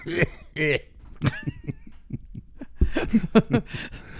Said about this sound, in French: Arrive en toussant.